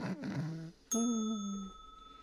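A bell rings once with a sharp strike and a bright tone that lingers and slowly fades, fairly loud, following a brief burst of vocal sound.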